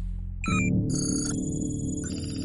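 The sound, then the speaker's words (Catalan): The team's undercover telephone at the Central Public Health and Consumer Unit in Barcelona rings with a bright electronic trill in short repeated bursts, fairly loud, over a steady low rumble in the background, before recording a voicemail message. “El telèfon d'incògnit de l'equip registra un missatge.”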